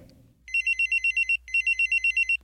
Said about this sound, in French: Au son de l'alarme, tout le monde est surpris et se regarde. Puis ils sortent leur téléphone de leur caleçon et vérifient, mais ils hochent tous de la tête, ce n'est pas leur téléphone qui sonne.